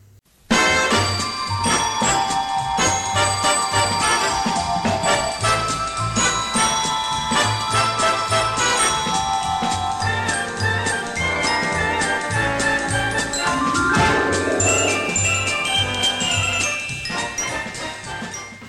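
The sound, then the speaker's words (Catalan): The theme melody of the 1960s American sitcom Bewitched (Embruixada in Catalan) plays loudly and continuously, bright and bouncy, with tinkling chime-like tones over a steady bass line and no one talking. “és la famosa sitcom nord-americana dels anys 60, Bewitched, o Embruixada, mm, tal com la vam conèixer anys més tard a TV3.”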